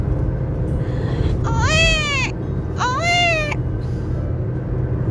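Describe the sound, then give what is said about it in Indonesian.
The infant Ismail cries out twice in drawn-out, wavering wails, each about a second long with a short pause between, over a steady rushing background noise, while Hajar searches for water between the hills of Safa and Marwa. “Suara tangis Ismail membuat Hajar terus berjuang mencari air penghapus da penghapus dahaga mereka.”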